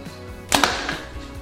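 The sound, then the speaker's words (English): A Mathews Tactic compound bow, at 29-inch draw and 70 pounds, fires a 450-grain arrow during a speed test: a single sharp, loud snap of the string release with a quick follow-up thump, then a brief ringing decay. No one speaks. “Now our 450 grain arrow.”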